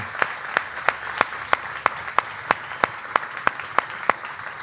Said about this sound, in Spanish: Quiero que demos un aplauso, por favor, Gracias.